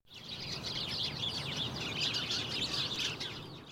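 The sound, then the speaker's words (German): Two kinds of migratory birds that fly each year to warmer southern regions, calling in a dense, continuous stream of high chirps and twitters, fairly loud, over a low rumbling background, with no pauses and no voices. “Einige Vögel zieht es Jahr für Jahr in die warmen Gefilde von zweien ist jetzt zu hören.”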